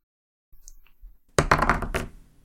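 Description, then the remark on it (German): A single die is rolled to pick questions: a few light taps and rattles, then a louder burst of clattering and tumbling that trails off, with no talking. It lands on one. “Ähm, ich lasse den Würfel rollen und wir gucken, welche Fragen rauskommen.”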